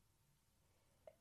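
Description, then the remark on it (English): A single sneeze: a brief, soft intake sound, then a sudden loud, breathy burst at the very end of an otherwise quiet moment. “…, Bless you. Bless me.”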